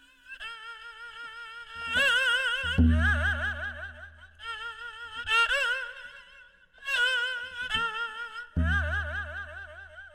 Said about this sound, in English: this is a two-stringed instrument that you play with a bow